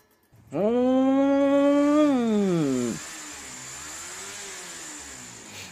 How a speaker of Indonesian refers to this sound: Karena gue kesel dan capek pada malam itu, gue langsung ngegeber motor gue atau ya mengeraskan suara motor gue lah seperti kayak kita lagi manasin motor pagi-pagi.